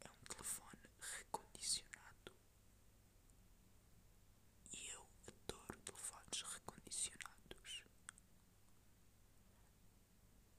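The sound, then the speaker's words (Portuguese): A voice whispers into the microphone in an exaggerated, breathy style, with sharp sibilant hisses in short bursts and a pause midway, mimicking a soft-spoken woman in an advert for refurbished phones. “Pá, ele faz mais ou menos isto por um lado é bem bizarro”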